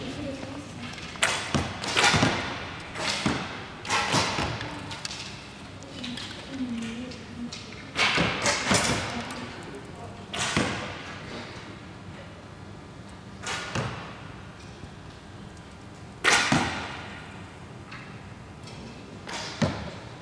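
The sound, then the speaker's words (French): Several arrows are loosed from a bow and strike a target during an archery lesson, each landing as a sharp, snappy thud at irregular intervals, with faint murmuring voices in the background. “Allez, flèche.”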